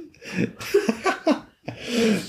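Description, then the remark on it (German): A woman splutters and coughs on a sip of water, several wet, choking bursts with breathy gasps between them, moderately loud, with no speech. “äh, nee, meine Frau hat, bespuckt sich da fast mit ihrem Wasser oder so.”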